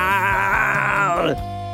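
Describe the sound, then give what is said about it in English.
A man vocally imitates Schwarzenegger suffocating as he loses oxygen on Mars in Total Recall: a strained, sustained groaning wail with rising, quivering pitch that chokes off abruptly near the end. “that's my impression of uh, Schwarzenegger uh, uh, losing oxygen on the on Mars on uh, Total Recall.”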